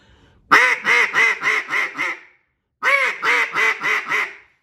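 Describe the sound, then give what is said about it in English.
Two quick runs of loud, raspy hen duck quacks, about five or six notes each and separated by a short pause, sounded on a duck call in an excited, hurried hen cadence to show excitement and aggression and make passing ducks turn. “I get excited on that first note, if you can hear that, and I and I hit a little faster in that hen cadence, showing excitement, showing a little bit of aggression that right there, I'm gonna get it, I'm gonna cause those ducks to, to turn”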